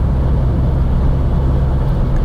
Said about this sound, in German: Also der Motor ist zwar präsent, also man hört ihn immer, wird halt auch ein bisschen überdeckt von den Windgeräuschen.